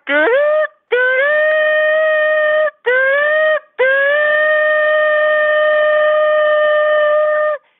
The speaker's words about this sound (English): Blow my shofar.